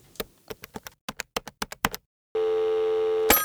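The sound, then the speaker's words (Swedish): Telephone dialing to call a forest inspector at Södra Skogsägarna: a quick run of about a dozen crisp button clicks, then a steady, buzzy electronic line tone held for about a second before a final click cuts it off. No voices. “Så jag tänker att vi kan väl ringa upp”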